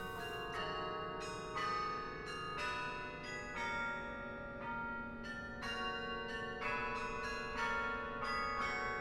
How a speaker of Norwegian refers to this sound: Og så hadde jeg nettopp oppdaget klokkespillet som musikkinstrument. Og jeg tenkte at dette kan jeg utforske resten av livet mitt, dette må jeg bare kunne. fordi det er et instrument som er så utforsket. Det er så mye nytt å gjøre med det.